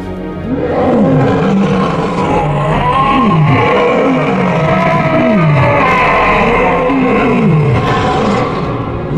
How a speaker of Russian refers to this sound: Это рычание раненого льва. А раненый лев вдвойне опасен.